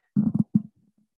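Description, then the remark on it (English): A voice imitates the rough, scratchy rumbling noise of a hearing aid earpiece being physically removed: two short gravelly bursts, then a few faint fading crackles. “it's like as you're physically removing your earpiece, there's your, yeah.”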